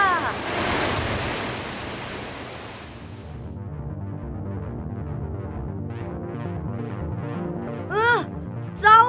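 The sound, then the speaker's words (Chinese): A loud, roaring rush of water flowing into the sea surges for about three seconds, then drops away into soft tonal music with a couple of quick rising whooshes near the end. “水流越来越急，突然一声隆隆声，就像一道瀑布一样，水流汇集到大海中了！”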